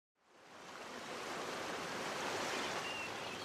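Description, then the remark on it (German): Waves washing onto the North Sea coast as the tide comes in rise from silence into a steady, broad rushing wash that swells and holds, loud, with no voices. “Doch mit der Flut kommt das Wasser wieder an die Küste.”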